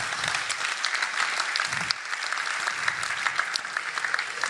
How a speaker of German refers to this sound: Ich möchte mit dir jetzt an diesem Punkt, ja, könnt gerne klatschen, ne?